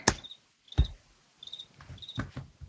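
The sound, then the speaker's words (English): A cricket chirps loudly in a room in short, high trills that repeat about every half second, clear, mixed with a few dull thumps and clicks. “Jiminy Crickets”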